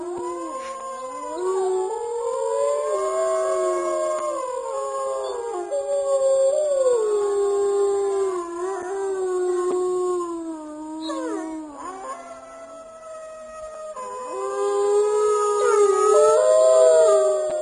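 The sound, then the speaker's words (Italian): Several wolves howl together at night in a long, overlapping chorus, their voices rising and falling in sustained wavering tones, dipping briefly midway before swelling louder again near the end; from a roughly 20-minute recording made over one night. “mi regalò diciamo così questa eh, registrazione do, di tipo 20 minuti che lui era riuscito a registrare nel corso di una notte”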